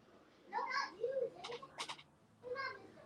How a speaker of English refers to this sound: My kids are yelling, so. I, I, feel like, what was that sound? Progressively getting louder. They're flipping in their room.